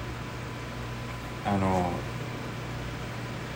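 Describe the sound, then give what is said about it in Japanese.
A refrigerator's low, steady hum drones on continuously in the background, faint but constant, with a single brief spoken word cutting in partway through. “あだからこのあれですこれ冷蔵庫の音だ。”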